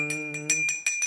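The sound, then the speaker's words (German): A hand bell rings rapidly and steadily during an arati ritual, its bright metallic clangs repeating about five times a second over a sustained low hum, fairly loud. “Oder du kannst auch klingeln und nur mit der rechten Hand das Arati ausführen.”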